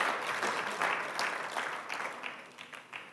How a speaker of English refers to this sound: Come on, let's give the worship team a clap offering. They did so well.